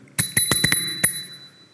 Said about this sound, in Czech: tak my vás vždycky necháme se rozpustit, do těch cvičení odejít a potom uh, zvonečkem z bicyklu.